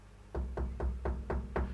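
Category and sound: impact, knuckles knocking on wood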